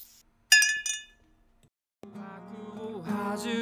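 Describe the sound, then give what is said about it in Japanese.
Two or three bright glass clinks ring out close together as glasses of milk are touched in a toast, followed by a short pause and then a swell of upbeat music. “牛乳で乾杯。”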